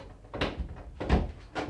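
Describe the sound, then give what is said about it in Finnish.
A door being opened, with a few wooden clunks and rattles of the handle and latch in quick succession, followed by a heavier thud. No talking. “Avaa ovi.”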